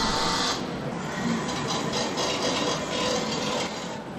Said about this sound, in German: Ja, wir sind hier im Ausstellungsbereich Perspektiven. Und was hört man hier im Hintergrund? Das kennt man sonst eigentlich mehr so aus der Küche oder aus dem Werkkeller. Das sind Haushaltsgeräte, die mit Strom betrieben sind und wenn man sie anmacht